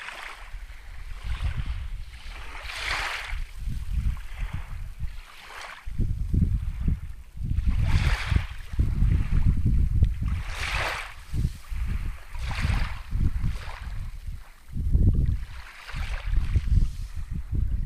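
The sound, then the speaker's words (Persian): Sea waves wash onto the shore in repeated surges in cold weather, each swell hissing and breaking over a steady low roar of water and wind, with no voices present. “نزدیک به دو ساعت رفتم لب دریا”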